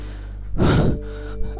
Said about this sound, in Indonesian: Setelah cukup lama, Celia dan Adin pun datang dengan napas tersengal-sengal.